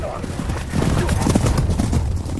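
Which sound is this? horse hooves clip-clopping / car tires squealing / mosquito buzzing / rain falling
horse hooves clip-clopping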